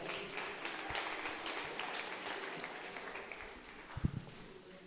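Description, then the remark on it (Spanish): A church audience applauds the Lord steadily, a dense wash of many hands clapping at once that holds for several seconds, with a few sharper claps standing out near the end. “Dale un fuerte aplauso al Señor ahí donde estás.”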